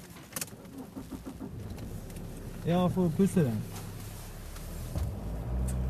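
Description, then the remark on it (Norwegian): A car's engine rumbles low while people climb in out of a windy snow shower, with keys jingling and a brief exchange of speech, before a drive from Østervågen to Vestervågen. “Vi går ut under en vindfull snøbyge og inn i bilen”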